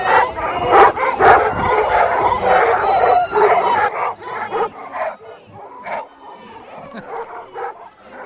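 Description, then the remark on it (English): Many golden retrievers, 361 gathered in one place in Scotland to celebrate the breed's 150th anniversary, bark and yip excitedly in a busy, overlapping chorus, loud at first, then thinning to scattered barks and whines, with a bit of laughter mixed in. “You can hear them barking. They're excited.”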